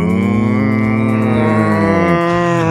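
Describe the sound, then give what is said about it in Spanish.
A cow lets out one long, drawn-out moo that stays steady and resonant, with its low pitch dipping near the end. It is loud and clear, with no voices alongside. “Porque cuando suenan las 12 se escucha un mugido a lo lejos.”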